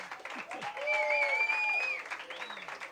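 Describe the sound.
A burst of crowd applause, steady dense clapping lasting the full few seconds, with high whistle-like tones and cheering voices mixed in, swelling slightly in the middle before easing.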